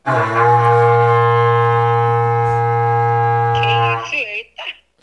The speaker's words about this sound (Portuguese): Ah, falei, eita, boi. Não, o que que foi isso? Ah, foi aí o berrante?